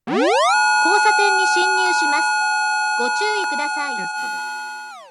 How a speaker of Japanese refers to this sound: 途中少し大きな音が出ますのでご注意ください。不協和音を交えた気づきやすい特殊なサイレンをご準備させていただいております。